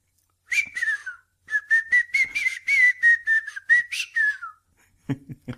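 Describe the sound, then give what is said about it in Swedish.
Someone whistles a short melodic tune, a steady run of clear pitched notes with brief breaks, ending in a falling slide before a short non-whistled sound at the end. “Nu kanske du tyckte att jag visslade lite speciellt.”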